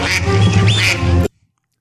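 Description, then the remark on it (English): A loud duck quacking sound effect for the Oregon Ducks: a nasal, raspy burst lasting just over a second, then cutting off abruptly into silence. No one speaks. “Okay, uh, next up, we go back to the north and we have Oregon Ducks.”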